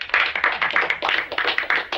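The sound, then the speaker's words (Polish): A short burst of applause, with dense, irregular hand claps crackling steadily for about two seconds at a fairly loud level, no voices over it. “Oklaski.”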